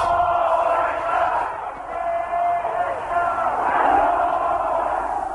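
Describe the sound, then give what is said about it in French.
A huge crowd in Tehran on 1 February 1979, greeting Ayatollah Khomeini's return from exile, roars continuously, many voices cheering and shouting together in a dense, steady wall of sound that swells and dips slightly without pause, as his Range Rover struggles through. “Dans ce mur de foule, la Range Rover de l'ayatollah Khomeini cherchait à se frayer un chemin.”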